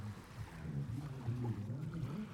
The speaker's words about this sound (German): Man hört das Rauschen der Wellen.